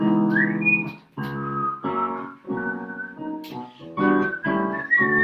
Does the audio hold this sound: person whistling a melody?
yes